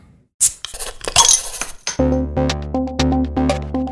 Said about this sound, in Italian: Ma ora, come di consueto, sigla e poi si comincia.